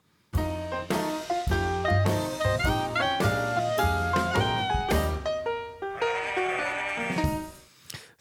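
Sheep bleating in a loud, steady run of repeated calls that bounce along in a rhythmic, almost musical pattern for several seconds before trailing off. No one speaks.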